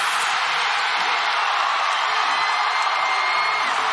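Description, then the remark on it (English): A huge arena crowd roars and cheers after Iowa Hawkeyes player Caitlin Clark sinks a three-pointer to become the all-time leading scorer in NCAA women's basketball, a dense, sustained wall of shouting and whooping that stays loud and steady throughout. “That was the sound of Iowa Hawkeye phenom Caitlin Clark sinking a three point shot to become the all time leading scorer in NCAA women's basketball.”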